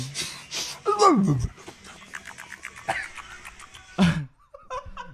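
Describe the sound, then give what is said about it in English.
A person imitates a dog with short panting huffs and a couple of whiny, yelping vocal swoops, broken up by bits of laughter. “That's like that's not what a dog sounds like.”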